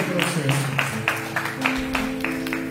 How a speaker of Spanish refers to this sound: Así que también un aplauso para ellos que están en su casa, por favor, déselo fuerte